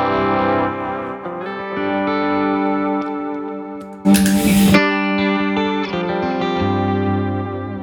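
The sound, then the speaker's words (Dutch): A sustained, pitched vocal line drenched in reverb and delay, two reverbs used in combination and applied by hand, notes smearing and echoing into each other, with a brief harsh noisy burst midway. No one speaks. “En dan ja, deze galm ook vaak in combinatie met dit galmpje.”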